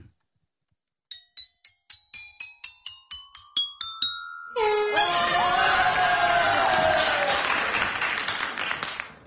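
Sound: crowd cheering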